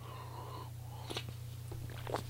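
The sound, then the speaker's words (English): A few soft sipping and slurping sounds of someone drinking coffee, short and quiet, over a steady low background hum with no talking. “I'm going to take another sip of coffee.”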